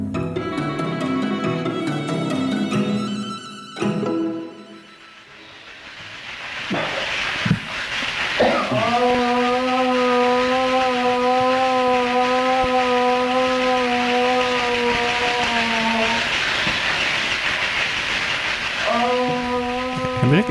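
An old, hiss-laden 1950s recording of a healing ritual chant of Southern California Native Americans: a steady, droning vocal tone held for several seconds, breaking off, then resuming, preceded by a brief musical phrase.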